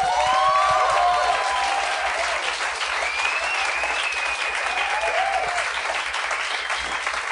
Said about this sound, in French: J'aimerais euh, qu'on donne une bonne main d'applaudissement à mes invités de la semaine.